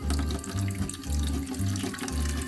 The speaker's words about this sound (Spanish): Salió por más nieve, la echó en la olla y la puso a derretir. Cuando el agua estaba calientita, la vertió sobre su tina de baño.